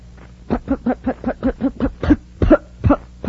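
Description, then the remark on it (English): A child's voice makes a rapid string of short, punchy "putt-putt" bursts, about a dozen in quick rhythm, imitating a small sputtering car engine while pretending to drive a surface car on Mars. “I'm playing like I'm driving a surface car on Mars.”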